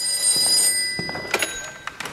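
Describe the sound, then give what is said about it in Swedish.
A telephone bell rings in a short, bright burst, then stops, followed by a few soft knocks and handling sounds as the receiver seems to be picked up. “Uh, och jag tänker på när Oliver ringer på slutet för, mm. att, för att berätta att han är förlovad.”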